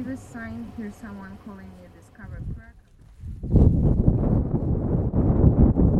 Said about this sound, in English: We were immediately hit in the face with a gust of wind, and it was cold. And I mean, really cold. Sleet whipped down and smacked us in the face as the wind cut right through our jackets like they didn't exist.